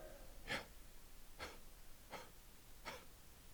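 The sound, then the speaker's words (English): Four slow, breathy exhalations and inhalations alternate at a steady pace, soft, each an airy rush of breath with no talking, as a person speaks the name of God just by breathing, without using the tongue. “Isn't it amazing that God allowed you to speak His name just with breathing?”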